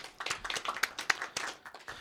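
An audience claps steadily for Max, many hands overlapping into a dense, bright patter with a few sharper individual claps standing out, fairly quiet throughout with no voices.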